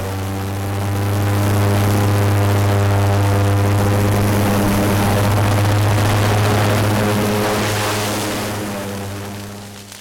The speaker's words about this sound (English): the airboat can respond to it really quickly and knock it down and kind of manage the situation and make sure that the fire stopped in the area where we want it to stop. That's the main role for this airboat out here.